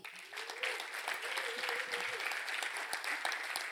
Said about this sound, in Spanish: Da un fuerte aplauso.